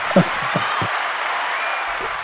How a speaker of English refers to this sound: yeah, I'm not, I'm not, sure I've ever been given canned applause before. That's pretty cool. we can do it again if you want.